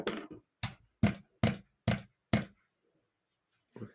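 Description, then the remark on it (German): Six sharp mouse button clicks in a quick, steady run, then a pause and one more click. No voices. “Also, wenn ich abuse, dann klingt es ungefähr so.”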